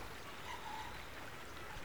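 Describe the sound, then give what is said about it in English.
Gentle water of the River Thames in London laps against its banks at spring dawn in a soft, continuous wash, a quiet and steady watery murmur with no voices or other sounds. “For a moment, the night's silence is broken only by the crowing of a few cockerels and the lap of the River Thames against its banks.”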